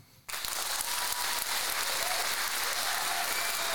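Applause erupts abruptly after a brief quiet moment and holds steady, a dense, even wash of many hands clapping at full strength for a few seconds.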